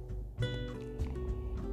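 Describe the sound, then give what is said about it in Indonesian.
Horse hooves clip-clop in a steady, unhurried rhythm as someone rides a horse deep in a forest, each hoof strike crisp, while a sustained tonal sound hums beneath them throughout. “Lalu setelah semakin dalam dia tiba-tiba bertemu dengan seseorang yang menunggang kuda.”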